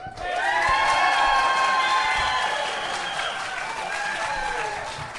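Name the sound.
audience applause and cheering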